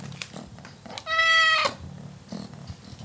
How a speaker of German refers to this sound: Ein besonders forderndes Schnurren legen sie an den Tag, wenn sie von Herrchen oder Frauchen gefüttert werden wollen.